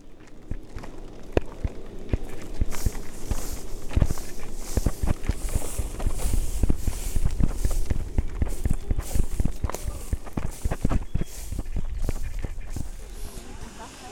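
Footsteps crunch and tap steadily outdoors as people walk on, a continuous run of sharp, uneven steps over a broad background hiss of open-air ambience.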